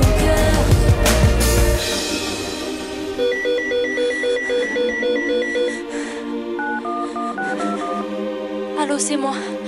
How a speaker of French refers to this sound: mon beeper vient de sonner. J'ai un donneur.